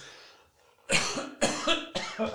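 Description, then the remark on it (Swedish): A loud coughing fit: three harsh, explosive coughs in quick succession after a brief quiet moment, each one raspy and breathy with no talking. “jag fick hostattack.”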